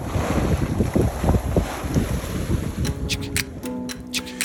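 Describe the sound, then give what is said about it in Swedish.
A sailboat underway with steady gusting wind rushing past and water sloshing against the hull, followed by a few sharp creaks and clicks from the rigging near the end. “Nå, hur som helst, jag, jag förklarar i samma veva också för mina söner hur, hur vinden som fyller våra segel och knuffar vår båt framåt också är en sorts solenergi.”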